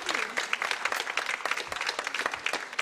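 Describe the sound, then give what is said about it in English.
A church audience breaks into sustained applause as people take their seats, many hands clapping densely and steadily for a few seconds at a moderate level. “We'll give them a round of applause as they take their seats.”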